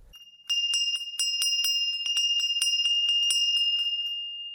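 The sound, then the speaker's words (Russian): A doorbell rings continuously for about four seconds as a telegraphist delivers a telegram, a bright, high metallic tone with rapid rattling strikes that fades slightly toward the end. No one speaks. “Ватсон, кто-то звонит.”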